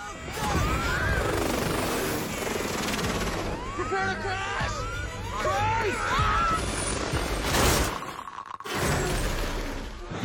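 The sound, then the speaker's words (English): A chaotic, loud helicopter crash scene with a bobblehead crashing down: rumbling impacts, shattering and clattering debris tumble continuously, with indistinct shouting voices in the mix and a sharp burst of smashing near the end. “That's such a small moment there where his, uh, where the bobblehead, uh, is crashing down.”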